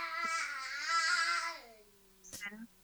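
A baby babbles loudly in the background of a conversation in a drawn-out, sing-song vocal run with wavering pitch, then a short pause before a brief higher squeal and a few more babbled sounds.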